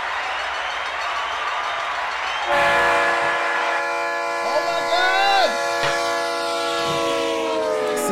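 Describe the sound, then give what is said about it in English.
A rushing, rumbling train noise gives way to a loud, sustained multi-tone train horn blast that holds steady for several seconds, bright, a short sound-effect alert for a stream's hype train reaching level two. “We're at level two of a hype train.”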